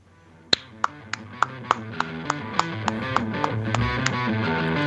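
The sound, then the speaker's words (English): About a dozen quick, sharp hand claps in a steady, even rhythm, starting loud and then staying fairly constant, over a sustained tonal musical background. “again with the fast clap.”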